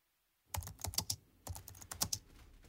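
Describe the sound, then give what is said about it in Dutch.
Quick, uneven taps on a computer keyboard in two short bursts with a brief pause between, clear, with no voices, as someone searches the internet for the name Jacob Luitjens. “Het eerste wat ik doe is zijn naam op internet opzoeken.”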